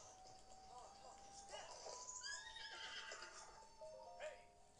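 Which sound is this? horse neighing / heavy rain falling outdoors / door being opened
horse neighing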